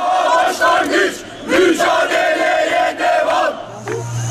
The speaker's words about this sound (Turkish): Altı yolda boğa heykeli önünde toplanan vatandaşlar sloganlar eşliğinde iskele meydanına yürüdü.